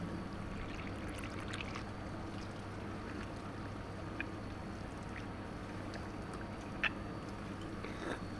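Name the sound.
water running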